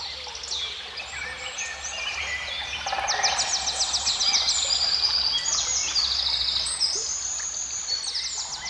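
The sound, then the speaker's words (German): A lively chorus of many birds chirping and trilling at once, busy overlapping calls that swell in the middle, over a faint low steady hum. No one speaks. “Es gefiel ihm das Zwitschern der Vögel.”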